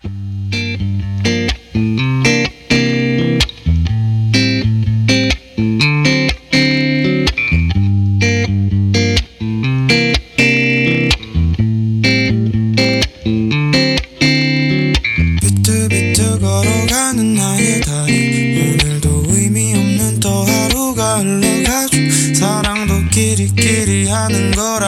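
A song's instrumental intro plays loud and upfront, driven by choppy, distorted electric guitar chords with punchy drums, building into a fuller, brighter wash of sound about two-thirds through. No voices.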